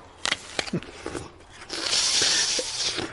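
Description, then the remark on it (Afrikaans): Crunchy bites into an apple: a few sharp cracks at first, then a longer stretch of wet, grinding chewing. No one speaks. “Laat my eens twee keer dink voor jy weer 'n appel eet, né?”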